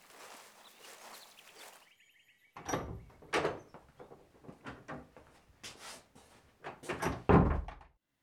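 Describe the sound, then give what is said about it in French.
A gate is pushed open by a group in a single movement: a soft rustling scrape, a brief high creaking squeal, then a series of heavy clanks, thuds and scuffs, with no voices. “D'un seul mouvement, on pousse le portail et on s'agglutine devant la porte qui est entr'ouverte.”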